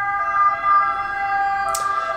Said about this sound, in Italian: Arriva pure la sirena.